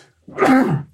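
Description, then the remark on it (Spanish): A single sharp allergy sneeze bursts out in Mexico City, loud and breathy, lasting under a second before fading into silence. “Salud. Gracias. Las alergias de la hermosa Ciudad de México.”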